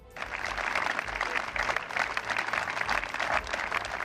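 Sustained applause from mourners, joined by the mayors of San Sebastián and Hernani, ending five minutes of silence: a dense, steady patter of many hands clapping that begins abruptly and continues evenly without voices or cheering.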